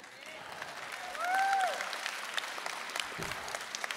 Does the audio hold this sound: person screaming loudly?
no